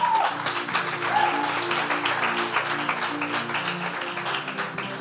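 An audience applauds steadily for about five seconds for their service assistant, a dense, even crackle of many hands clapping at once, with faint voices and a low musical hum underneath.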